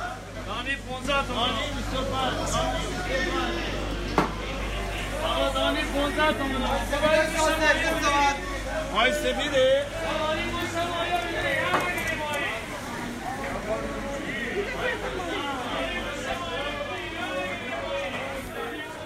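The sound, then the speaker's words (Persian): A busy crowd in the bazaar of Rasht, Iran, murmurs continuously, many overlapping voices blending into a steady babble with occasional clatter and footsteps, moderately loud throughout. “خانم ها و آقایون صدای من رو از بازار رشت میشنوید”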